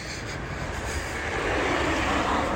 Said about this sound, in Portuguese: A atmosfera faz uma oposição ao avanço do avião, até que ele vence essa oposição e decola.